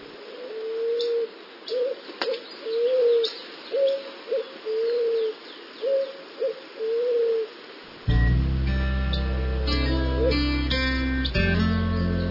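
Doves coo in a steady series of about a dozen soft, low hooting notes over faint chirping, then music begins and carries on to the end.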